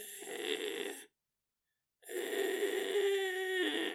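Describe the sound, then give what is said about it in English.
A person imitates a cat breathing with its mouth open, a labored, suffocating sound: two raspy, snore-like breaths about a second each, separated by a short silent pause, fairly loud. “And she goes, dude, it, it sounds like he's suffocating.”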